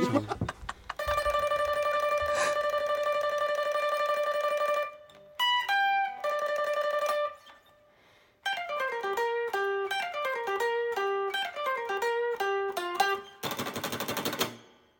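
Retro 8-bit video game music from the game Spartan X, with bright square-wave tones: long held notes, a brief gap, then a fast bouncing melody, ending in a burst of harsh noise. Loud, with no talking.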